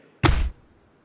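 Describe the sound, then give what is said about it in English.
A single loud foley punch sound made by stabbing a knife into a cabbage: a dense, heavy thud with a crunchy, wet edge that cuts off quickly, with no voices around it. “That's often done by sticking a knife in vegetables, usually cabbage.”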